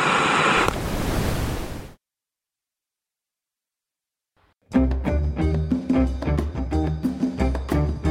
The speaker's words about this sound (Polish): Kapitanie, odbieramy dziwne sygnały. Niech pan posłucha.